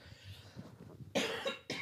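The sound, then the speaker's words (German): Two harsh coughs in quick succession, the first long and forceful, the second a shorter follow-up, preceded by a moment of quiet breathing and throat noise. “Sorry, ich habe gerade einen kleinen Hustenanfall.”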